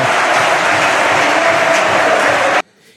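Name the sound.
applause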